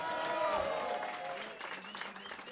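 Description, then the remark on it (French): A live audience at the Blues Café applauds and cheers for a bassist of a band, steady clapping with whoops and shouted voices rising over it, sustained through the whole stretch. “J'aimerais que vous fassiez un petit peu de bruit, s'il vous plaît, pour … à la basse.”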